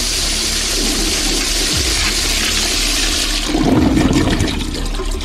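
A toilet flushes loudly, a steady rush of water that surges stronger partway through before continuing to swirl and drain. No one speaks.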